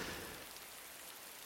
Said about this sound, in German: Aber man hört es ja gerade im Hintergrund, Regen.